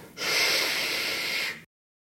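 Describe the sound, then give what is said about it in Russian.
A single sustained "shhh" from one voice, a steady breathy hiss lasting about a second and a half, then silence. Used to quickly make a talking group stop talking. “Но, в общем, да, здесь, если нужно как-то в краткое время сделать так, чтобы группа перестала говорить, то используется вот этот вот ш.”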